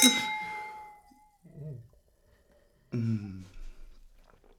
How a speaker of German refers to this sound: Stößchen. Stößchen.